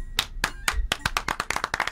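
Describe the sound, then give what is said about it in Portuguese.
A single person claps hands, starting with a few spaced claps and speeding up into a quick, steady run of sharp, bright smacks, about a dozen in two seconds, with no talking. “E as palmas são para duas coisas.”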